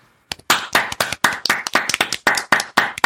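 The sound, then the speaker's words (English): Hands clap in a quick, steady rhythm, about a dozen sharp, loud claps over roughly three seconds, given as a "big clap" for Oates, with no talking. “Let's give him the big clap.”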